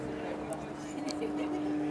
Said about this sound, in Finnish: ja tuo ääni on muuten sitten pien lentokone merkkiä en tiedä, mutta, mutta aika lailla tuosta Varmaan Cessna. Se on Cessna 332 mun mielestä.